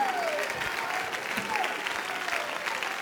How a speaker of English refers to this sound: Stand up and clap your hands and lift up your voice and give him a high praise right now.